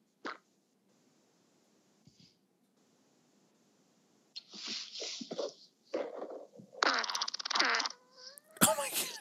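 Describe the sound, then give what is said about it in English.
A string of loud, wet, sputtering fart noises, with rattling bursts and squishy pops separated by brief silences, ending in a sharp squeaky blast. “Five best wet farts of 2020”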